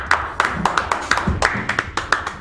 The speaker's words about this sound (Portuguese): Queria aplausos para mim mesmo.